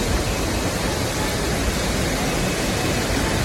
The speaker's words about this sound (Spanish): La lluvia ha llegado con fuerza a Málaga, acompañada de granizo como el que escuchamos en la zona de Ciudad Jardín en la capital.